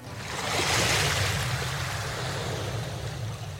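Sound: sea waves breaking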